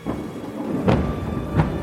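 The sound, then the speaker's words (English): Steady, dense rain hisses throughout while two sharp rumbling bursts of thunder break through close together, giving the feel of a heavy downpour in a storm. “Finally, as his family boarded to store the last bit of seed, the rain began to fall.”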